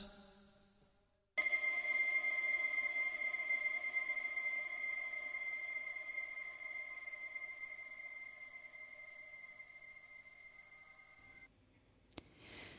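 A sustained electronic synth chord holds steady and bright for about ten seconds with no vocals or drums, then cuts off abruptly, leaving near silence and a faint click.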